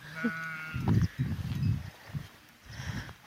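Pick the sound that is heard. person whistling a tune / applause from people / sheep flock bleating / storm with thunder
sheep flock bleating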